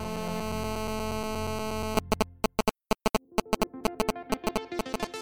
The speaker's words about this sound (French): D'ailleurs, à l'époque, si on décrochait le téléphone pendant que quelqu'un d'autre utilisait Internet, on entendait des sons bizarres. C'est le bruit de la data qui circule.